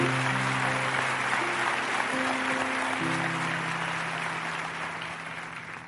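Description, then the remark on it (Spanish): An audience applauds steadily, a dense wash of clapping that holds for several seconds and eases slightly at the end, with sustained keyboard chords shifting beneath it. “Sí, dáselo fuerte el aplauso.”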